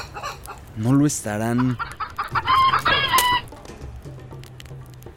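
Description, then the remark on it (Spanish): A chicken writhes, clucking and squawking loudly with sharp, frantic harmonic cries in quick bursts, during a ritual by a fire in a park, followed by a brief spoken phrase and a low background hum. “El animal se retuerce, cacarea”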